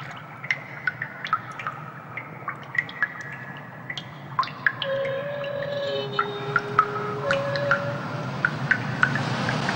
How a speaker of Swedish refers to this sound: Och så vattenfallet och så det här äh, mystiska ljudet som skulle kunna vara något gångjärn, det ser man inte Nej. någonstans.